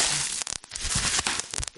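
A package inside another package being unwrapped: dense crinkling and rustling of bubble wrap, broken by sharp crackles and brief pops, continuous for under two seconds with no one speaking.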